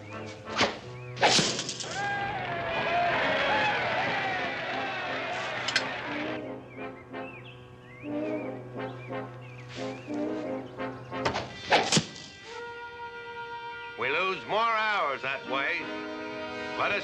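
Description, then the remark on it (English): Sharp wooden thuds of arrows shot by archers hitting a target one after another, with a burst of busy commotion early on and voices talking in between the impacts. “Watch some superior bowmanship.”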